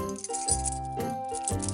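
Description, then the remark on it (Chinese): A bunch of ten keys, taken out of a purple bag, jangles and clinks in bright bursts about every half second, layered over steady ringing tones, with no voices. “可是也太多钥匙了吧？”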